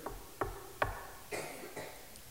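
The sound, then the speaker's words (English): Three quick, evenly spaced sharp knocks on a door, followed by a couple of duller, softer thumps. No one speaks. “and that moment, when they hear that knock on the door, will either be a moment of dread or of joy?”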